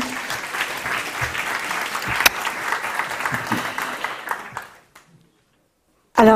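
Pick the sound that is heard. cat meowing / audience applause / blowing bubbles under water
audience applause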